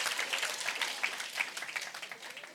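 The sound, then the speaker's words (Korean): Hand clapping, a dense, rapid patter of sharp claps blending into a steady applause-like texture, fairly soft and continuous for a few seconds with no talking. “자 이렇게 제 이렇게 박수를 치면 남미에선 같이 박수를 치지 누가 박수 쳤나 쳐다보지 않아.”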